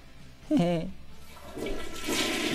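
A toilet flushes: a brief squeaky tone, then a loud rushing of water that swells and keeps churning to the end.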